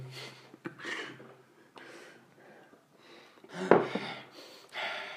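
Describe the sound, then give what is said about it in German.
Heavy, snuffly breaths through a blocked nose from a slightly ill person, coming in a steady run of short huffs and sniffs with a wheezy, snorting edge and no talking. “Was atmen sie so viel? Na, dafür verstopft.”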